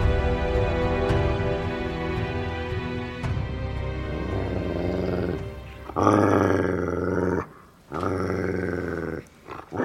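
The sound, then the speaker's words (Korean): A dog named Wori growls loudly toward the gate, a sustained, rumbling snarl that swells in intensity and breaks off briefly twice near the end. No one speaks. “우리는 워리가 대문 쪽을 향해 으르렁거리는 소리를 들었다.”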